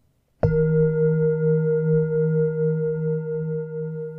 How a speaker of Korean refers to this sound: 싱잉볼은 명상을 위해 사용되는 도구입니다. 금속이나 크리스털로 된 그릇 하나, 그리고 그 그릇을 두드릴 막대 하나로 구성되어 있어요.